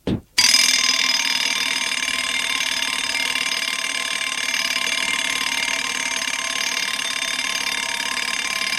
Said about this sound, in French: Le lendemain matin, la sonnerie du réveil sonne à 6h30.